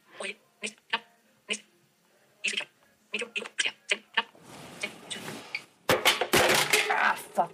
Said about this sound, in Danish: Der tabte jeg så min telefon på gulvet. Jeg tror, den klarede frisag.